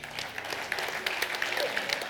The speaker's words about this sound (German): Applaus, Applaus.